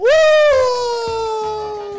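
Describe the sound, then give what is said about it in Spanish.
A single wolf howl sweeps upward and then holds a long, steady wavering note, loud, slowly fading over about two seconds with no other sounds around it. “De golpe aparece el aullido de un lobo.”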